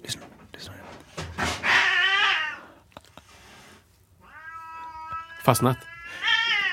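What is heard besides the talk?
two cats yowling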